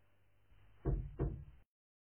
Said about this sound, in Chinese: 有人敲门了， 快去看看。